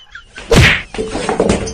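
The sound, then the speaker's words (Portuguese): A chair cracks and gives way: one loud, sharp wooden thwack, then a brief pause and a scatter of rattling, clattering knocks as it collapses. No one speaks. “Mas a bronca aí é que ele não malhou as pernas da cadeira. Aí a pobre ficou fraca e caiu.”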